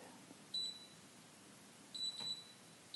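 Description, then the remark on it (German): Short, high electronic beeps from a kitchen timer's buttons as it is set for two minutes, a single one, then a quick pair, then another starting, fairly loud over a quiet background. “Timer. Tipp, tipp, tipp.”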